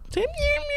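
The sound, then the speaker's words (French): A person imitates a kitten's thin, mewing cry: one drawn-out, high, wavering meow that rises and then holds, clear, with no other talking. “je reviens encore au chat, c'était un bruit de chaton.”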